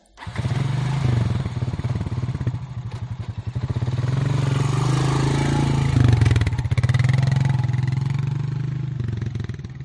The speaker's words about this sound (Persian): یک روز صبح زود موتورسیکلتم را بیرون میآورم روشنش می کنم و بدون آنکه روغنش را امتحان کنم یا بگذارم کمی گرم شود به مجرد روشن شدن آن حرکت می کنم.